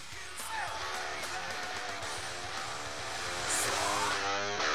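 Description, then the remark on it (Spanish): A short, busy radio jingle introducing the 'momento tricoma' segment, with bright layered music, swooping tones that slide up and down, and shouted or whooping voices, staying loud throughout and swelling slightly toward the end. “Sí, Vamos escuchar la musiquita de que nos pidió tanto la gente.”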